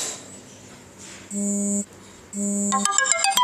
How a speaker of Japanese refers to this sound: あちょアラームが鳴りました